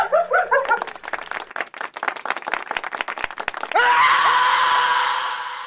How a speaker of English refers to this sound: I hate it when they scream.